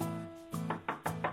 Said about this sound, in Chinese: 可是有一天呢，都两年以后了，正当艾美丽和斯坦利。在银河最外围的地方探险的时候，忽然厨房门又被敲得砰砰直响。